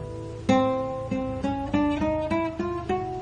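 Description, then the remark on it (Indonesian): A guitar string plucked about eight times while pressed on the fretboard, moving up fret by fret from the first fret, each note ringing briefly and climbing in pitch step by step; clear and fairly steady in loudness, with no talking. “Nah, kemudian kalau ditekan”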